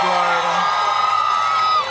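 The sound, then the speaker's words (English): A crowd in Pensacola, Florida cheers and whoops loudly, a dense wash of many voices with sustained high yells rising above the roar, continuous for the full two seconds. “You know, this is our big crowd of people.”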